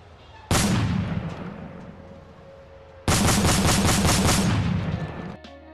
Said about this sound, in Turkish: 1989 yılında Etiler'de dur ihtarına uymayan lüks otomobilinde polisin açtığı ateşle belinden vuruldu.